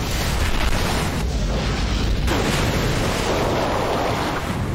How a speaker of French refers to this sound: C'est moi qui faisais le bruit de l'eau.